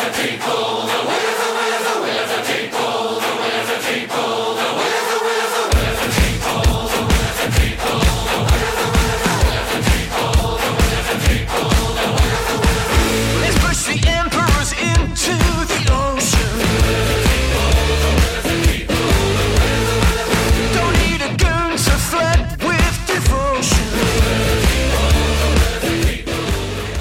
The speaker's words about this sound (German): dann hören wir uns jetzt an uh, … von …